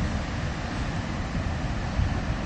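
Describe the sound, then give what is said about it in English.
Strong wind buffets the microphone with a steady low roar at a beach, while sea surf washes continuously underneath, a dense, unbroken rush of noise with no voices. “Uh, walked all the way. Yeah, windy as fuck.”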